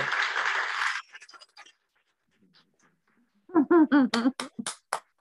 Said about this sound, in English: Let me do my little clap thing.